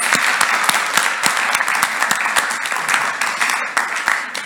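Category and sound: crowd, big round of applause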